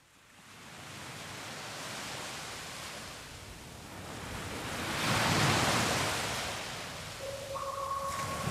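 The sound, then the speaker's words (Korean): Ocean waves wash steadily onto the shore as part of a song version featuring wave sounds, building to a loud surge midway before easing back, with a faint high tone creeping in near the end. No voices. “파도 소리가 들리는 시원한 버전으로 함께 하고요.”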